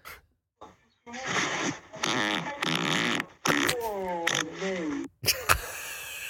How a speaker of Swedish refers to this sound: och pruttar under täcket